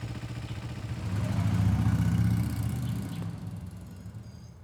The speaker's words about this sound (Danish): Men måske ved ham, eller hende, der render rundt med en motorsav midt om natten, hvordan vi får tændt lyset igen.